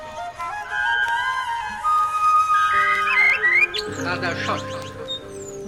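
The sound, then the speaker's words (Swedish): Bellbirds call from the treetops of tall trees in the morning, with clear, ringing whistled notes, several overlapping at different pitches, some held and some sliding, with quick chirps mixed in, steady throughout. “Det är morgon och från trädtopparna ringer klockfåglarna in den nya dagen.”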